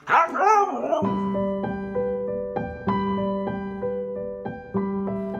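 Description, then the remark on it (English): Latte, a dog taught to speak, makes a brief, wavering vocalization that rises and falls in pitch as if trying to say "I love you", then soft, steady melodic music with sustained notes takes over. “I even taught her to speak. She could say, I love you.”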